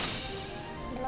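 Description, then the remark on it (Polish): A short video game coin pickup effect: a quick bright burst at the start with a ringing tone trailing off underneath, lasting about a second. No one speaks. “Tutaj jak podnosimy serce, a tu jak podnosimy pieniążki.”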